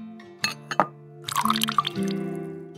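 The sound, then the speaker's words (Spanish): A few clinks of a cup, then coffee pours steadily into it with a rising, filling tone as coffee is prepared. It is moderately quiet, with no voices. “a despertar, prepararte un café”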